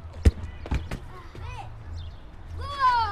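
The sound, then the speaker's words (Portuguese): Children play ball outdoors in the Jamaica neighbourhood of Seixal, Portugal: a ball thumps a few times against hard ground while the children shout and call out, their high voices rising over a low outdoor hum. “Os miúdos do Jamaica estão a jogar à bola.”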